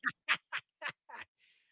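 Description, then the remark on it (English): Chickens fighting in a park squawk in five harsh, raspy bursts at a quick, fairly even pace, loud, followed by a faint trailing squawk. No one speaks. “He's fighting yeah. birds over here now.”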